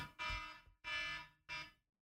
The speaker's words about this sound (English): That's one of the many alarms.